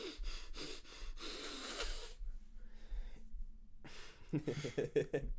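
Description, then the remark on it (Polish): A voice imitates the wheezy, snorting breath of a flat-faced pug struggling for air after running: a run of rough, rasping puffs, a short pause, then a quick burst of voiced, grunting huffs, fairly loud. “Jak one biegną, to ma, przez to, że mają takie płaskie pyszczki, im się trudniej oddycha i one potem takie...”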